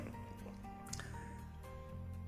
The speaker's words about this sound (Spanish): Porque estamos tomando agua. Exactamente. Sí. En vasos de vidrio chiquitos. Sí. Y a pequeños tragos.